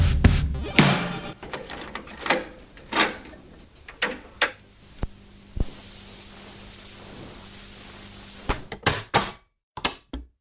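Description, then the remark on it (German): A cassette player's mechanism clunks and clicks repeatedly: sharp mechanical thunks at irregular intervals, with a steady tape hiss between them and no voices. “Äh, oh Gott, also jetzt ja vorhin gerade, aber ehrlich gesagt haben wir das natürlich ähm, im Internet recherchiert, denn äh, ein Kassettenabspielgerät habe ich schon lange nicht mehr zu Hause.”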